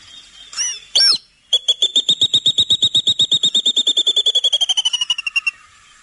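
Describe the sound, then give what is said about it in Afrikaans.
A water thick-knee calls in a long, rapid series of piping whistles that start strong and gradually slow and fade, preceded by a couple of brief harsh notes, heard clearly with no talking. “Hier is die waterdokop.”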